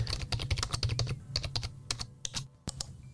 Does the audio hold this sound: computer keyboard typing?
yes